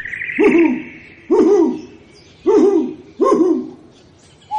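An owl hoots four times in a steady, evenly spaced series, each call loud with a slightly rough, wavering tone, and a short fifth note begins at the very end.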